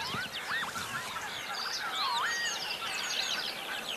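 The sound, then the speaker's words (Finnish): Northern lapwings give wheezy, swooping calls that rise and fall in pitch over open farm fields, while a skylark's continuous high, twittering song runs underneath throughout. No voices. “Jotenkin hauska ääni toi töyhtöhypän ääni. Ja jotenkin tämä kiurun liverys tuossa taustalla, se kuuluu tähän peltomaiseman ääneen.”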